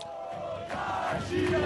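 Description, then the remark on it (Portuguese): Supporters of São Paulo football club from Torcida Independente, the club's largest organized fan group, chant in unison to greet the team, a mass of voices holding sung notes over a roar of crowd noise. The singing is steady and loud and swells twice in strength. “e depois é, recebido pela torcida independente, que é a maior torcida organizada hoje do clube, é, com essa com esse cântico.”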